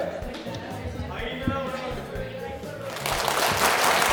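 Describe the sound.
Crowd chatter and overlapping voices build into a burst of audience applause that swells loudly in the final second, dense clapping washing over the murmuring voices.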